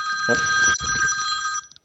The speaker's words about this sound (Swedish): Oj, nu ringer det. Ett, ett ögonblick, för jag måste svara bara.